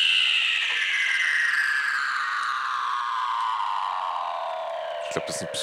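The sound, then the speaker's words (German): A long, eerie seal call: one steady, otherworldly whistle sliding slowly downward in pitch for several seconds, loud and clear, with a few faint clicks near the end. “Das klingt wie ein krasser Science-Fiction-Film. Das sind die Geräusche von den Robben.”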